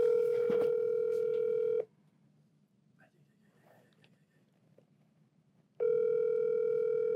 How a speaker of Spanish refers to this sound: vamos a llamar al señor Noel. Noel. Por altavoz.